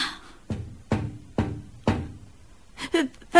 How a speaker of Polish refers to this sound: Czy ktoś pukał do okna?